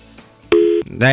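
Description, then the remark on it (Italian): A caller's phone line drops during a radio phone-in and a short, steady electronic tone sounds loudly, before a voice starts talking right after it. “Riprova, riprova, riprova a telefonare, dai, tanto vado dal prossimo.”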